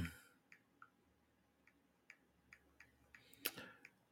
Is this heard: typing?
yes